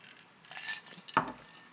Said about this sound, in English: Um, hold on. Let me get a sip here.